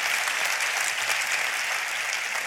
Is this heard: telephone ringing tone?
no